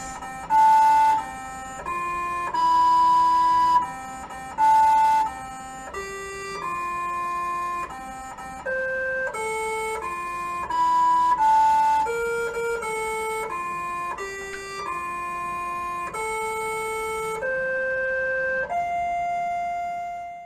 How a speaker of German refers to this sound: Der kleine Mars Rover sinkt an dem Jahrestag seiner Landung ganz alleine und viele Millionen Kilometer entfernt Happy Birthday zu sich selbst. Oh. Und so klingt es nämlich.